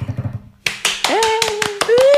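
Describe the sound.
A brief bit of talk gives way to about eight sharp, loud hand claps at a steady, quick rhythm welcoming a special guest, with a sustained, rising vocal tone sounding over the later claps.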